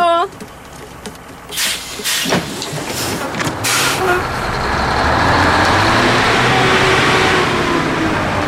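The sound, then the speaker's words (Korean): A bus pulls away with a couple of sharp air-brake hisses early on, then its engine rumbles and revs steadily louder as it accelerates. “그런데 한 명이 다시 예, 버스를 뒤쫓아갑니다.”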